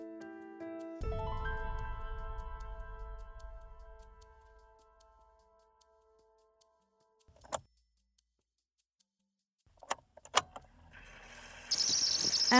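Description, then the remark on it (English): A van engine turns over and rumbles with a tonal whine as the van drives, then gradually fades away, followed by a few sharp clicks and a sudden burst of steady noise at the end. “After an amount of wrangling and getting an amorphous and ethereal blob securely put in this death trap of a vehicle, we are headed back to the anchor.”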